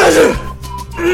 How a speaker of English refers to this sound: wow, Gesundheit.